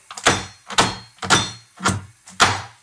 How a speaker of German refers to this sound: Währenddessen hört ihr, wie ich die Schokolade hacke.